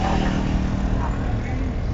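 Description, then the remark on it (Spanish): A steady, loud low rumble of a car engine and tires on the road, heard from inside the vehicle, droning on evenly without letting up. “Pero bueno, aún no estoy cerca de casa, pero creo que ya es tiempo de cortar este caminos del auto.”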